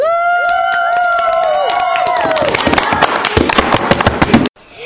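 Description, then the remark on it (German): A concert audience cheers wildly, high whoops and shrieks rising over a roaring crowd, then a dense burst of rapid clapping before the noise cuts off abruptly. “Und das Publikum rast.”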